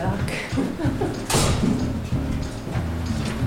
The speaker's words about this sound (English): We just went through a, a we had to use a key card to get into this door.